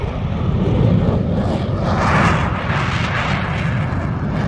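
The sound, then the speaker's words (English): A continuous, thunderous roar of Concorde jet engines at full takeoff power with the throttles fully forward, loud, with deep rumbling lows and a rising hiss that swells briefly midway. No voices are heard. “So throttle's fully forward, literally push back into your seat.”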